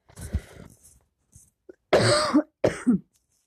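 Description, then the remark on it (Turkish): A person coughs several times, a softer hacking burst first, then two loud, harsh coughs separated by a short pause, with no talking. “ay çok özür dilerim öksüreceğim galiba bir saniye.”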